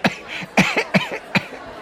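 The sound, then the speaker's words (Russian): A narrator performs the coughing fit of the character Senka, a thin figure wracked by coughing while loading a basket into a sleigh: four sharp, hacking coughs in an uneven rhythm over about two seconds, fairly loud, with no speech. “Пока Сенька возился с корзиной, Семен Трофимович разглядывал его тощую, стоявшую к нему спиной и терзаемую кашлем фигуру.”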